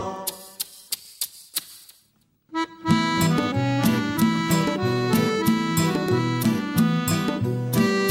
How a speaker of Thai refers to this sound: แม่จิ้งจกร้องยังไง